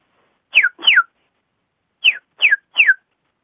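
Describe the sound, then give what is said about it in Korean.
A person imitates a chick peeping with five short, high, downward-sliding whistled peeps: two close together, a pause, then three more evenly spaced, clear, with no talking. “병아리인데요.”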